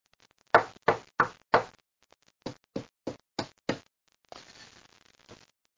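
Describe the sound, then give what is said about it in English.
Knocking on a door: four loud, sharp raps in quick succession, a short pause, then five slightly softer knocks, followed by a faint scraping rustle. Nobody speaks. “knocking on the door.”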